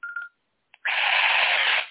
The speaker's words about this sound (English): So the chirping radio, it's really aggressive, is one i I'm going to turn it on again.